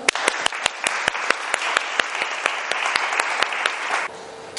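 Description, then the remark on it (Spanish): A crowd claps steadily for about four seconds, dense overlapping claps with a few sharp louder slaps standing out, before the applause abruptly fades into quiet room tone. “Le damos un aplauso.”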